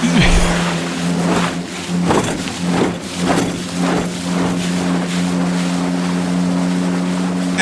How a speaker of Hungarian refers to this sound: Hát igen, csak mondom, most Mirotic beindította a csónakot, és, de figyelj ide, és csak... visszaindult Európába.